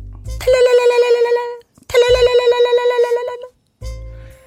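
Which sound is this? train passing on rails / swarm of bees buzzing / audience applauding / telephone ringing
telephone ringing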